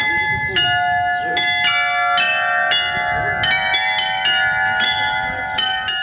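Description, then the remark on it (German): The carillon of the Rüdesheimer Schloss, a castle in Rüdesheim built in 1729, rings out a melody of clear, overlapping bell tones, struck in a steady sequence with long ringing sustain, prominent over a low ambient background. “Das Rüdesheimer Schloss wurde im Jahr 1729 erbaut und das hauseigene Glockenspiel möchte uns in diesem Moment sagen, einsteigen in den Oldtimerbus und die faszinierende Flusslandschaft des Mittelrheintals genießen.”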